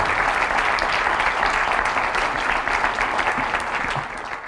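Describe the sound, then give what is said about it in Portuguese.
An audience applauds steadily to welcome the vice-president of the IPATIMUP institute to a panel, a dense wash of many hands clapping at a constant loud level for several seconds before easing slightly at the end. “Uma salva de palmas também.”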